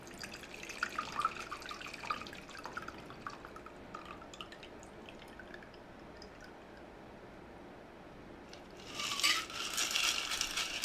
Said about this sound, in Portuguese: Margarita, como eu falei, é um drink coado. Ela não desce o excesso de limão, não desce o excesso de gelo que ficou aqui.